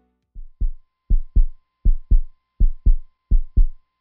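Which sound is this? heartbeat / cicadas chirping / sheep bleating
heartbeat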